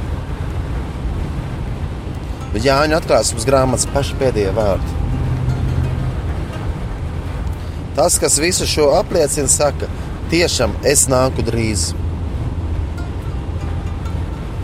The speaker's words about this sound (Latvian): raidījuma stācija no mašīnas šoreiz braucoša, braucoša raidījuma šajā reizē